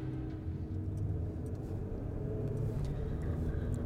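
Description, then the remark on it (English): Steady traffic rumble from a busy street by a little cluster of boutiques and businesses, with a car engine droning and other vehicles passing in a continuous low, even wash of road noise. “I parked my car near her store it's tucked into the back of a little cluster of boutiques and businesses on a busy street.”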